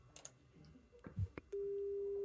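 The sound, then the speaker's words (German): A few clicks and handling noises, then a steady, pure telephone ringback tone begins and holds clearly to the end, sounding like a call ringing through on the line. “Ich höre es klingeln, ja.”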